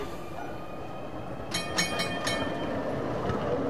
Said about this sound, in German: Die gute alte Straßenbahn. Neben der U-Bahn verfügt Nürnberg über ein Straßenbahnnetz.